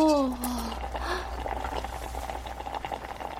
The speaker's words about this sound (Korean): 이사하고 첫 끼는 라면이었다. 여자를 내 방으로 초대했다. 냄비에 너구리 두 마리가 끓고 있었다.